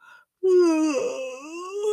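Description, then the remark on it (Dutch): A single loud yawn with a full stretch, drawn out for over a second into a deep voiced groan that sags in pitch, then lifts slightly at the end. “Nou, even lekker gapen kan echt super fijn en ontspannend zijn.”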